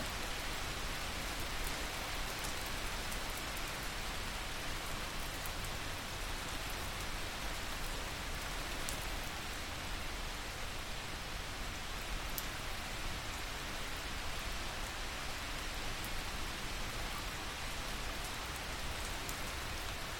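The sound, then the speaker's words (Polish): Steady rain falls continuously, a dense even hiss with soft patters of drops hitting a surface, unchanging in loudness for the whole stretch, with no voices. “powoli przeniesie swoją uwagę ze swojego ciała na dźwięki deszczu, nieprzerwanie utrzymując w swoim ciele stan nieruchomej, błogiej ciszy.”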